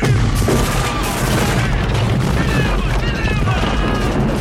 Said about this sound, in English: Yeah, he said he hit the fuel dump. Uh, if you, he throws the M67 grenade there, and like several explosions happen.